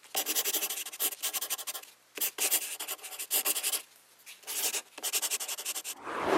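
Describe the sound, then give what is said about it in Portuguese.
A pen scratches across a sheet of paper in quick, close strokes, grouped into bursts separated by short pauses, with a slightly louder rustle at the end. No one speaks. “Alguém a escrever com uma caneta numa folha de papel.”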